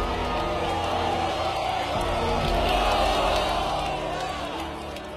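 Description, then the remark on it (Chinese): A large crowd cheers and shouts together in a dense, continuous roar of many voices, celebrating the successful test of China's first atomic bomb at Lop Nur, Xinjiang, on 16 October 1964. The roar stays loud throughout before easing off slightly at the end. “中国的第一颗原子弹试爆成功，在欢呼的人群中，郭永怀流着眼泪，累得瘫软在了地上。”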